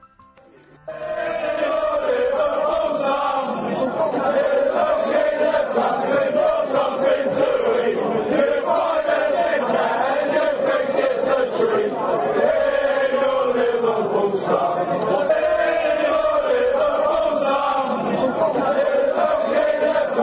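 A large crowd of Chelsea football fans sings a terrace chant together, a version of a chant adapted by Manchester United supporters, a loud, continuous mass of voices carrying a rising and falling melody for the whole stretch, with a stadium's echoing roar.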